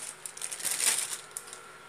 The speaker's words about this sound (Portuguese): Deixa eu pegar essa sacola aqui.